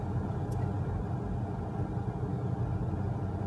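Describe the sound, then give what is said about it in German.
A steady, low engine rumble from inside a moving car driving to Frankfurt, droning continuously at an even level with no voices or other distinct sounds. “Ja, warum melde ich mich mal wieder aus dem Auto? Ich bin unterwegs nach Frankfurt.”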